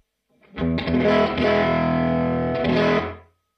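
A crunchy, tweed-style overdriven electric guitar, on the middle pickup position with the gain being turned up, plays a few chords that ring out loud and sustained for about three seconds, gritty and slightly raw, with no voices.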